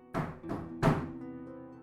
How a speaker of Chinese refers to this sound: 我正愤怒的抱怨时，听到门外。传来一阵敲门声